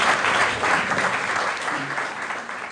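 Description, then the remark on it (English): Steady, dense applause from a crowd for comedian Karen Kilgariff at Laugh Night, a benefit show, filling the whole stretch at a fairly loud, even level with no voices breaking through, tapering slightly toward the end. “Thanks a lot, you guys. Give it up for Karen, they're very funny, They're very talented Karen Kilgariff.”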